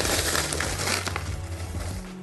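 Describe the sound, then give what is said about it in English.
Rolled oats pour into a nonstick skillet in a steady, dense rustling patter that lasts a couple of seconds, with faint ticks and clinks of flakes striking the pan. No one speaks. “Basically, the first four ingredients just go right into the nonstick skillet. We've got the rolled oats.”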